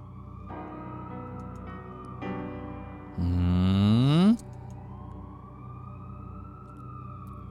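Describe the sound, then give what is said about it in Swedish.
A siren sounds at the start of an experimental post black metal song by a band from Odesa Oblast, Ukraine, over a low, steady drone: two sustained tones, then a loud wail sweeping upward for about a second before cutting off, leaving the hum underneath. “Eller ambulansnoja kanske.”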